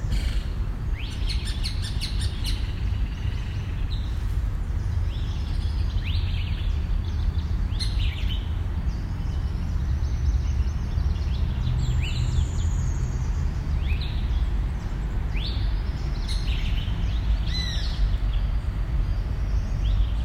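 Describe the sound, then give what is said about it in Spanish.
Several birds sing and chirp in overlapping bursts, bright whistles and quick trills repeating throughout, against a steady low outdoor rumble, at the University of Antioquia on 3 March 2022, between 6 and 8 in the morning. No one speaks. “Y en la caja sonora también le damos voces a las vocalizaciones de las aves.”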